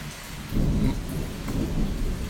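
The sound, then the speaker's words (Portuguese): Low, rolling thunder rumbles through steady afternoon rain in the countryside, swelling in a couple of deep surges before easing back, rumbling rather than sharp, with no voices present. “E essa live relâmpago surpresa numa tarde de chuva aqui na roça. Se vocês vão ouvir vários trovões aqui em volta.”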